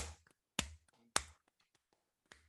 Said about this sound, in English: Yeah, I mean, claps. Guys, clap yourself. Come on, man. Let's do some claps.